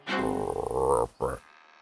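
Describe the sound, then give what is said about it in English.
A person vocally imitates a frog landing, letting out a loud, drawn-out throaty croak followed by a short second croak, with no other talking. “um, the frog, still wearing the hat, lands right in front of the bead and goes,”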